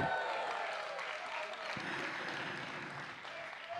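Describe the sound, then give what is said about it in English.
A crowd applauds steadily and loudly, mixed with whoops and shouted cheers given as a Ric Flair impersonation, welcoming a preacher as he comes to the stage; the clapping is sustained without pause throughout. “So can we give our best Ric Flair impersonation”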